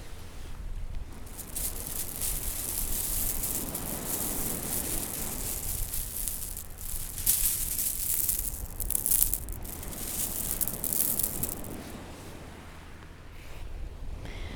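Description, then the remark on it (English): About a million tiny beach pebbles around feet in cobalt blue Birkenstocks shift and rattle in a continuous hissy clatter, with surf and wind noise washing underneath; the sea is not very choppy; no one speaks. “And nestled within about a million tiny pebbles. And they sound like this.”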